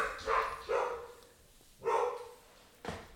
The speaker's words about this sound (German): das sind die Hunde. Besuch. Falls sich jemand wundert. Wir sind mhm. jetzt schon wieder ruhig. Verwunderter Blick. Wer kann das sein? Die beste Alarmanlage der Welt.